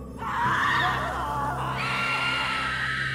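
Shrill, overlapping screams rise and hold for about three seconds in a cave, loud and sustained with a hollow, echoing quality over a low rumbling drone, with no speech.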